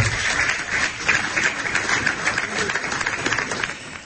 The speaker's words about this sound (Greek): τον ευχαριστούμε ιδιαίτερα και παρακαλώ όλοι να σταθούμε όρθιοι να το χειροκροτήσουμε και να δώσουμε τον λόγο.